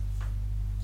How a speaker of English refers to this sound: You can hear the aircon in the background through this podcast.